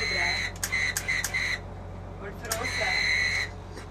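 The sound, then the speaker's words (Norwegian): A shrill whistle blows in two bursts, the first broken into several quick toots and the second held steady for about a second, against a low background hum. “Er det krise med fløyta nå?”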